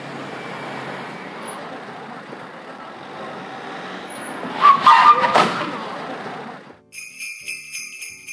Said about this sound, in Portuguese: um barulho de carro seguido de uma freada, seguido de uma batida. Coloquei uma batidinha simples para não ficar tão fácil assim de adivinhar, mas é basicamente um presente de Natal antecipado para vocês.